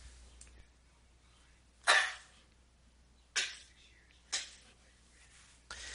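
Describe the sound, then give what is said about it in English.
A sneeze, a sharp breathy burst followed by a few shorter bursts over several seconds, with no talking in between. “Hold on, I gotta sneeze.”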